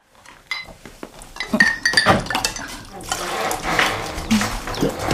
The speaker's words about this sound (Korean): 내가 부엌에서 낮에 먹은 그릇 설거지를 하고 있는데